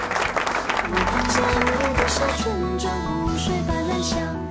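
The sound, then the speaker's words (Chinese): A burst of applause in tribute to police officers and all those on duty at their posts over the New Year, many hands clapping in a dense, steady patter at even loudness for several seconds, with a voice and some tonal sounds mixed in over the clapping. “向我们所有坚守在岗位上的这些朋友们致敬，给你们点掌声。”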